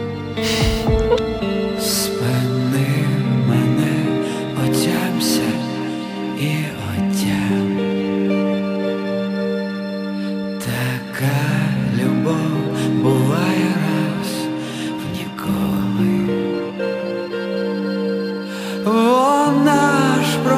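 A full-band song by a Ukrainian band plays loudly and continuously from start to finish, with dense instrumentation and a sung vocal line carried over the top.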